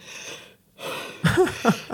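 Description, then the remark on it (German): A voice imitates the strained, wheezy breathing of a panic attack with a racing heart: two long raspy breaths with a pause between, then a few short, pitched gasping wheezes. “dann habe ich oh, so ein Herzrasen gekriegt, so ich habe dann gedacht, durch dieses Herzrasen natürlich und durch diese Panikattacke, die ich hatte, habe ich natürlich auch schlecht geatmet.”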